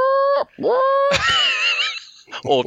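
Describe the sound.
A person vocally imitates a siren as a spoiler warning, with rising and falling wails and strangled, screechy tones, loud, lasting a few seconds with brief breaks.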